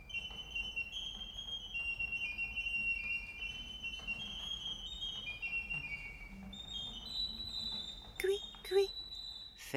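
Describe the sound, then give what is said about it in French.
A woman plays a serinette bird organ, a tune of high, thin piping notes that hold and step between pitches, with a low murmur underneath and a few sharp knocks near the end. “La dame joue de la serinette.”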